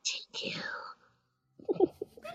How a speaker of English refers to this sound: whispering in, whispering into a microphone is the most effective thing ever.